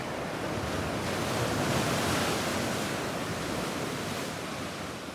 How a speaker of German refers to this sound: In Gursuf, einem Badeort nordöstlich von Jalta, klatscht in einer kleinen Bucht das Schwarze Meer in seiner Aufgewühltheit wuchtig an die Felsen.